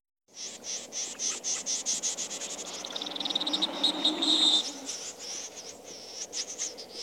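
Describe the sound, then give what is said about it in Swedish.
A snipe's display calls: a fast run of monotone, evenly repeated notes given while circling before a dive, shifting into a harsher scraping stretch after the dive before resuming. Loud, with no voices. “Och det, det går dels igen i det här mm, så att säga monotona ljudet när de eh, cirkulerar inför dykningen.”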